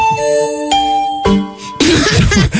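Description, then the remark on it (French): A mobile phone ringtone chime plays three clear, sustained electronic tones in a stepped sequence, followed by a burst of noisy, rough sound at the end. “bon bref, au niveau de la musique, bon, bah, j'ai les sons de mon portable.”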